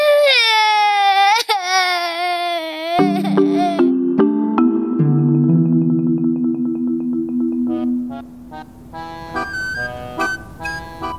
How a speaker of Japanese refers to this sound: というわけで全く泣いてばかりでちっとも話を聞いてくれなかったんです